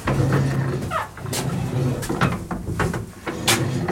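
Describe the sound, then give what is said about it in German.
A door is handled, with several sharp clunks and thuds over a steady low rumble, as if opening and shutting in quick succession. “Tür.”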